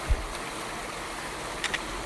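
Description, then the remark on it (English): Steady rushing of creek water running over red-and-gray stones at a hiking-trail creek crossing by a little waterfall on a hot day, as hikers cross using trekking poles. The sound is broad and even throughout, with a soft low thump near the start and two quick clicks toward the end. No voices. “Crossing the creek”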